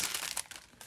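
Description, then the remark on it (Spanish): Someone taps a dish-washing sponge for ASMR several times in an irregular rhythm, each tap a soft, crinkly, scratchy burst with a bright, hissy texture, with no talking. “Tapando una esponja de lavar platos.”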